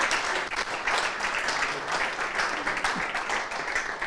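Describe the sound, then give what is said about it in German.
Sustained applause from a crowd, a dense, steady wash of many hands clapping at even loudness throughout, with no voices standing out. “Applaus”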